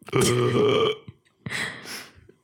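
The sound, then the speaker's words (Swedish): A voice imitates a baby girl's hiccups: two croaky vocal bursts with a short pause between them, the first longer and louder than the second. “Jävla idiot som hickar så.”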